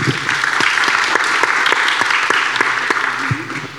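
Steady applause from an audience thanking Wanda Lakramp, who is absent, for help with documentation: a dense wash of many hands clapping at even loudness, with a few sharper individual claps standing out and no one speaking.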